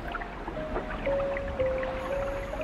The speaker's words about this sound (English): Water wells up below the snow and flows away. Wells up, flows away.